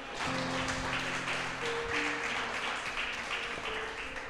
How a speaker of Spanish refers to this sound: ¿Cuánto pueden darle un amén, un aplauso al Señor?